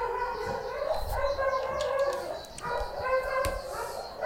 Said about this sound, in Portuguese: Não, então, por coincidência, não preciso, né? Porque os cachorrinhos já estão gritando por mim.